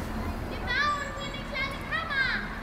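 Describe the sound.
Children's voices call and chatter outdoors, heard through an open window on the first warm days of early spring along with a few cars and birds, with high bright shouts rising over a steady low hum of background ambience.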